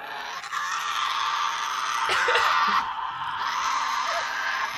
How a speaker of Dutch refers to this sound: Weet je wat voor geluid de Tasmaanse duivel maakt? Oh nee, nu ben ik wel benieuwd. Tasmanian Devil. Maar kom je dat niet uit bij de cartoon? Komt ie. Geluid van de Tasmaanse duivel.